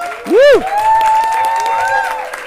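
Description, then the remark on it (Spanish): A live audience in Miami cheers and applauds when asked to make noise, opening with a loud rising whoop, then a sustained wash of yells, whistles and clapping that carries on steadily without fading. “Así que yo quiero una bulla para que se escuche una vez más.”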